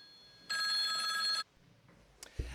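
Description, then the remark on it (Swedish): A telephone bell rings once in a loud, sustained electric trill lasting about a second, followed by quiet room sounds and a brief clatter, like a receiver being picked up. “Nu ringer det igen. Nu måste jag svara i telefonen.”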